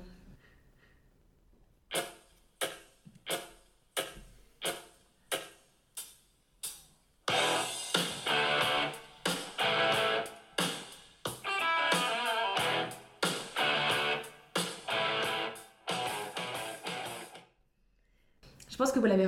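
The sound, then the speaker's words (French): A hard rock song intro: about eight punchy, evenly spaced guitar chord stabs separated by short gaps, then the full band crashes in loud and driving before cutting off near the end. “Parce que pour moi, si tu aimes le hard rock, tu aimes forcément ce son, ou en tout cas j'espère”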